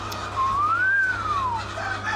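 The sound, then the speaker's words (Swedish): A single drawn-out, whistle-like warning call from hens rises in pitch and then slides back down, over a steady low background hum. No one speaks. “då härmar de det. Och det är ett varningsläte som de lägger ut.”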